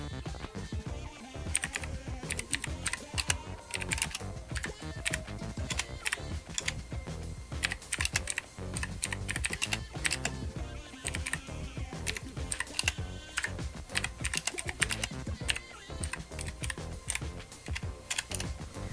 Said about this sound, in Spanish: Voy a googlarla rápidamente. Permítanme, eh, les haré un ASMR de mi teclado mecánico rápidamente.